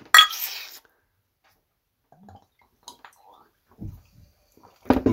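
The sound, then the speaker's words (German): Glasses clink together in a toast in a bright, ringing burst right at the start, followed by quiet scattered knocks and brief low sounds near the end, with what may be a voice. “Zum Wohl. Zum Wohl.”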